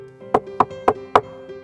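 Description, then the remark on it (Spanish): Four firm knocks on a wooden door, evenly spaced, with a faint steady hum underneath and no voices. “Al día siguiente, la princesa estaba cenando con el rey, sus hermanas y todos los cortesanos, comiendo en su plato de oro, cuando llamaron a la puerta.”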